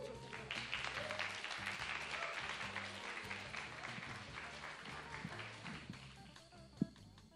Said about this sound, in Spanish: Pues fuerte el aplauso para el …